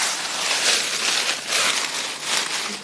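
Dry Maldivian leaves rustle and crackle steadily for a few seconds, a bright, hissy crunching that swells and eases in waves, with no voices.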